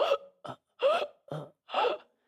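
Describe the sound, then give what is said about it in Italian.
A voice imitates a man choking, with five short, strained gasping bursts in an uneven rhythm, separated by brief silences, moderately loud with no speech. “Continua a guardare il tetto e incomincia ad avere come un soffocamento, con gli occhi spalancati verso il soffitto fa...”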